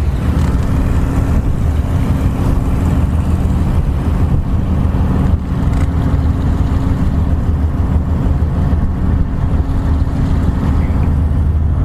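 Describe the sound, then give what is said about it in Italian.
Waves slosh rhythmically against the bow of the ship Savonarola beneath a steady, loud low rumble of boat engines, including a boat carrying powerful lights to attract fish, with the Portofino promontory ahead; a continuous wash of water noise with no voices. “Potete udire ritmicamente lo sciabordio delle onde davanti alla prua del Savonarola.”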